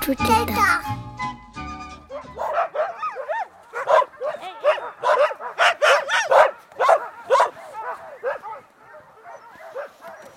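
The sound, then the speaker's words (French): A dog named Hook barks and yips over and over in quick, uneven bursts, fairly loud, following a brief stretch of other sound at the start. “c'est Hook. C'est euh, mon conjoint qui a donné le nom.”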